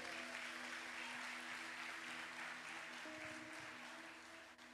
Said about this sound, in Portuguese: Você pode aplaudir a Ele aí nessa noite?